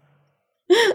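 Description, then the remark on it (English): A sleeping, dreaming dog gives one short, loud, breathy snore, a sudden snort-like exhale that follows near silence and cuts off abruptly. “Oh, I don't know if you heard that big snore. That was my dog.”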